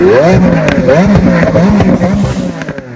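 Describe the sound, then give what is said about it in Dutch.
The V12 engine of a Lamborghini LP874 Roadster in Azuro Flake colour revs loudly, its pitch rising and falling in quick repeated sweeps with a throaty growl, fading slightly toward the end. “kom op, hoe klinkt die? Ja, V12 motor.”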